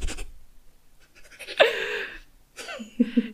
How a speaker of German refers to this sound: Ich glaube, mein Hund atmet glatt lauter in dieses Mikro, als ich rede, ey.